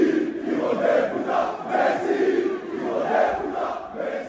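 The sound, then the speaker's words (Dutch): A large crowd of angry football fans chants outdoors at Messi, their voices rising and falling in steady, repeated swells, loud and continuous throughout with no one speaking over them. “Ja, ze zijn bij Neymar eh, langs geweest en Messi, aan huis.”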